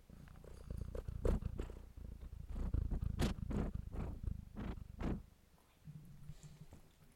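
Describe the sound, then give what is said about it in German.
A domestic cat, newly added to the household, purrs in a steady low rumble with rhythmic breathy surges, with faint rustling in the background. “Ihr könnt mal rein miauen, das wäre gut für meine Downloads.”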